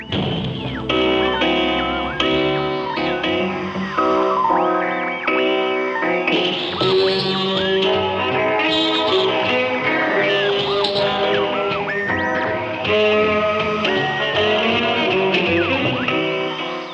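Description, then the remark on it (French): A jazz guitar recording plays continuously at a steady, fairly loud level, with quick melodic runs and sustained chords over a full accompaniment. It is the music of a guitarist fleeing his country, being broadcast by American radio host Willis Conover. No one speaks. “alors même que le guitariste fuit son pays, à des milliers de kilomètres de là, un célèbre présentateur radio américain, Willis Conover, est en train de diffuser sa musique.”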